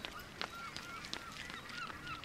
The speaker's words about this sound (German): Und ich, ich sehe noch, wie die Möwen auf unserem Dach hocken. Diese typischen englischen Möwen.